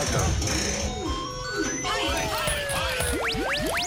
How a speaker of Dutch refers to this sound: Drie muntjes, ja. Ja, drie muntjes. Je hoort ze precies vallen, ja. Ja, je hoort ze vallen, hè? Nou, drie muntjes, jongens.